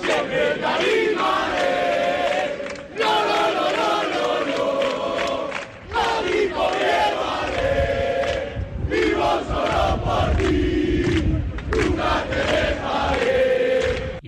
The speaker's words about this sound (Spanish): El Oviedo que ahora mismo está concentrado en su hotel habitual, en Oviedo, desde hace una hora y así despedía la afición a su equipo este mediodía.